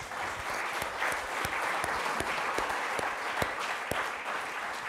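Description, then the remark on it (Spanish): An audience claps steadily for several seconds during a sermon, a dense patter of applause with a few sharper, louder claps standing out, sustained at an even level throughout. “Démosle un aplauso. Eso se merece un aplauso.”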